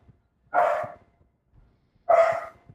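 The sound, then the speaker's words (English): Two loud dog barks, roughly a second and a half apart, each a full harsh woof, with quiet gaps and no one talking. “Oh no. I have a tech dog.”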